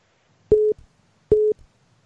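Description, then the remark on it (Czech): Two steady electronic telephone beeps on a phone line, each lasting about a fifth of a second with a short gap, repeating like a busy signal; clear and fairly loud with no one speaking. “já, tam slyším, slyším, prostě pískání ještě telefonu.”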